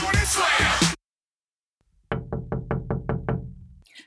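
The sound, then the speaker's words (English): A dresser is shoved and slammed against a door with a loud scraping crash. After a pause, seven quick, evenly spaced knocks rap on the door. “And I'm going to slam a dresser up against the door.”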